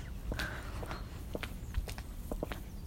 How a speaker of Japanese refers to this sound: 私は今朝の8時半えー、雪が積もった数日前に降った雪がまだ残るハンブルクを地下鉄の駅に向かって歩いています